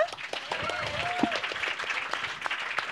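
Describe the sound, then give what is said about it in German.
Audience applause given as a shout-out to a guest sitting in the audience: dense, steady clapping fills the whole three seconds at an even level, with a brief whistle-like cheer rising and falling early on. “Einen Shoutout, einen Applaus bitte.”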